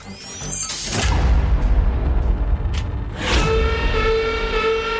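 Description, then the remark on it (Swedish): A loud, harsh wrong-answer buzzer sounds in a number-guessing game after a contestant guesses 1395, opening with a booming crash and then holding a steady, droning tone for several seconds, with no one speaking. “Nej, det var fel eh, ton direkt på det.”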